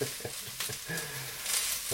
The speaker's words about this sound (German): So, bin gespannt, ob man das hört, dass es hier schon brutzelt bei den Pilzen. Ich denke schon. Sehr schön.